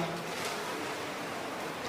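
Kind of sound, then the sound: nature, rain falling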